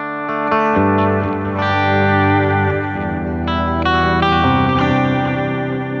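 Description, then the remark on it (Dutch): An overdriven electric guitar through a distortion pedal plays loud, sustained, gritty chords that shift a few times, with thick buzzing harmonics and no voices. “dan, dan doet hij ook wat met het geluid, een beetje Dan- overstuurd. Dan wordt hij een beetje v- viezer of zo.”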